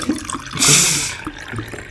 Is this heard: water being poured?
yes